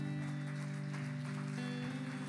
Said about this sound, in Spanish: ¿Por qué no le das un aplauso a Dios?